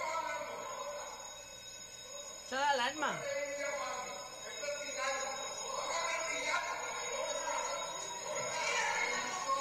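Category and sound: signal or alarm, alarm ringing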